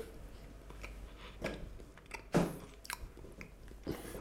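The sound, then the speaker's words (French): Chewing of a piece of 12-month aged Comté cheese, something firm, with soft wet mouth sounds and a few crisp bites, the loudest around the middle, with no talking. “Regardez le beau bébé là. Je pense que ça donne envie. Je vais régaler.”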